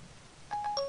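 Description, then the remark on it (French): A quick run of electronic phone dialing tones as a phone places a call by voice recognition, three or four short steady beeps in fast succession starting after a brief quiet lead-in, fairly clear against faint background noise. “je fais, la reconnaissance vocale. Je fais ceci. Alors voilà. Tout de doute. Appeler Cédric Ingrand.”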